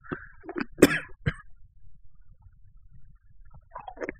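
A short burst of coughing, several sharp harsh coughs in quick succession within the first second or so, followed by quiet and a faint throaty sound near the end.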